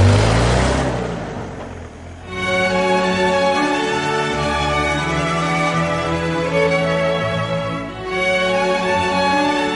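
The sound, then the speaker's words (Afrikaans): A vehicle engine roars up at night, briefly easing off, then holding a steady, loud revving drone with strong harmonic tones, dipping slightly near the end before continuing. “Gedag, ek hoor 'n voertuig in die nag.”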